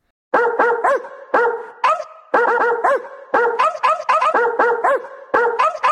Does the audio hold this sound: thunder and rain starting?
no